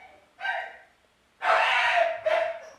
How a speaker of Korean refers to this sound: 이게 소리가 지금 강아지 짖는 소리가 신경 쓰일 정도로 혹시 많이 들어가나요? 괜찮으신가요?